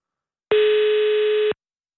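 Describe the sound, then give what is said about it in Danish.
A single steady telephone ringback tone sounds for about one second, loud, with a faint lower two-tone beneath it. It starts and stops cleanly, with silence around it and no voices. “Der er en lille øh, totone nedunder.”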